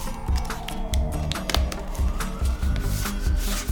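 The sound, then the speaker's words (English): Rustling and rubbing as a piece of paper is pressed over the bottom end of a tube and a piece of tape is smoothed down to secure it, with scattered crinkles, small clicks and a faint squeaky stretch throughout. “Okay, now that I have that, I'm gonna take a piece of paper and cover one side. And I'm gonna take a piece of tape and secure it over the bottom.”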